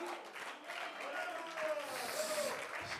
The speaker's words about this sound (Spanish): Si sus palabras son para Dios, elévelas. Y si sus aplausos son para Él, que sean más lindos en esta hora.